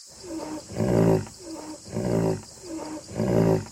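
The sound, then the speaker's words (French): Rhinoceroses bellowing: three loud, throaty grunting roars repeat in a steady rhythm, each opening with a lower moan before swelling, with no talking. “Professeur, c'est quoi ce bruit derrière vous Ce sont mes amis rhinocéros.”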